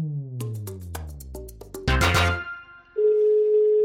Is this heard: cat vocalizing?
no